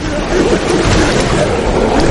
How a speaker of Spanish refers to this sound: Se acerca a un salto de agua. Rema en sentido contrario, pero cae. Las turbulencias arrastran al libro.